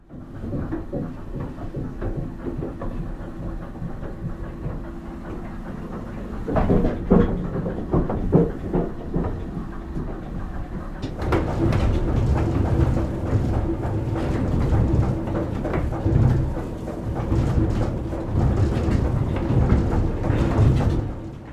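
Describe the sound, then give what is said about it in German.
Heavy old machinery of a historic mill in Potsdam rumbles and clatters steadily, with rhythmic knocking and grinding. Partway through, a second, fuller and louder mechanical din from the lift of a ceramics museum takes over, continuous, with no voices. “Das eine ist die historische Mühle in Potsdam und das andere ist der Elevator, also der Aufzug im Keramikmuseum Felken.”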